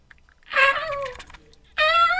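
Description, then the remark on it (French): A person imitates a seagull with two high, nasal, wailing cries, the first drawn out and sliding downward, the second starting abruptly after a short pause, fairly loud. “Et il me faudrait aussi une petite mouette.”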